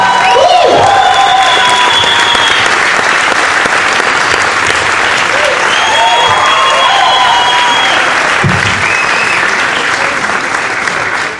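Loud, sustained applause from an audience, a dense steady patter of many hands clapping for over ten seconds, with a few faint whistles or cheers rising above it and no one speaking.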